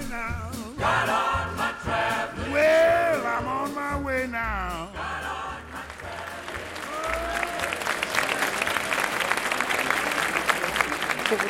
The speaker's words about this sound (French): Séville, la grande ville d'Andalousie, autour de sa célèbre Plaza de Toros, de sa célèbre arène qui s'appelle la Real Maestranza, la maîtrise royale. Nous avons assisté à deux corridas et voici donc en conséquence des trompettes, des voix, des cris.